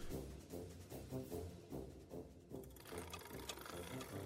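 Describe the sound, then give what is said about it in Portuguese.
A large mechanical calculating engine, an analytical engine of thousands of interlocking metal gears, whirs and clicks in a steady rhythm, its clattering pulses repeating roughly twice a second, fairly loud with no voices. “À medida que estudava os desenhos, quase conseguia ouvir os zumbidos e os cliques da máquina imensa e bela.”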